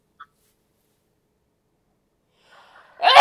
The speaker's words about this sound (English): Hold on, I have I have to sneeze.